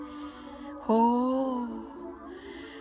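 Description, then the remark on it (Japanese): Steady synthesizer tones played as imitation birdsong, sustained and fairly soft throughout, with a voice briefly exclaiming over them partway through. “鳥の声風に作ってくださってるんですね。”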